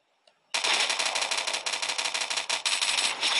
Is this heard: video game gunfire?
yes